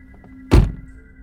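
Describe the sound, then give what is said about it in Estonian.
A car door is pulled shut gently from inside with one short, muffled thunk, over a faint steady background hum. No voices are heard. “küsisin, kui olime jõudnud turvaliselt autosse ja uksed tasakesi kinni tõmmanud.”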